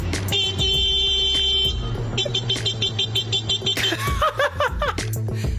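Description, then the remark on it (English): A man's voice mimics a car horn with two long, loud, steady honking blasts, followed by bursts of laughter and chuckling. “He isn't being interrupted by the car, he is making making yes. the car sound.”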